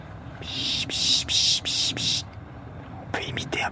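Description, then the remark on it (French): A person imitates a raptor call to attract tits, making a run of four breathy, hissing bursts, then after a pause a quicker cluster of short, sharper calls. “les rapaces, certains bruits d'oiseaux, pour les faire venir, pour dire ouais, je t'ai vu, viens voir.”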